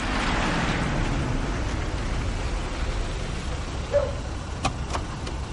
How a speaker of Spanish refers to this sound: De noche un automóvil se detiene ante un edificio.